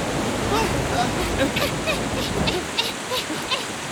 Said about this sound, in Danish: Åh oh, nej, der kommer en kæmpe bølge.